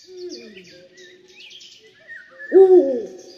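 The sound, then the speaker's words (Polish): A Eurasian eagle-owl hoots at night in the forest, giving a deep, low hoot that swells loudly near the end, after softer, drawn-out low tones, while faint high chirps from other birds flicker in the background. “Chodzi, że to jest orzeł puchacz.”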